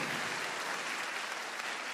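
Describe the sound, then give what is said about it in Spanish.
An audience applauds to show they understand the point being made: a dense, steady wash of many hands clapping at once, fairly loud and even throughout the two seconds, with no voices over it. “Bueno, tienen que aplaudir si de mente lo están entendiendo.”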